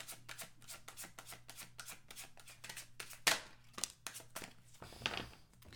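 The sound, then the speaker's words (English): Tarot cards being shuffled: a steady run of quick papery riffles and slides, with a sharper snap of cards partway through and no voices. “I will definitely show you the cards once I finish shuffling them.”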